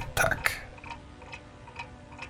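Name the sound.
grandfather clock ticking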